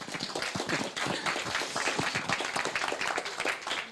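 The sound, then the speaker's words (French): Dense audience applause for a storyteller after a story: many hands clapping in a steady, crackling wash of sharp overlapping claps, sustained at a fairly even level for several seconds with no voices standing out. “On peut l'applaudir encore.”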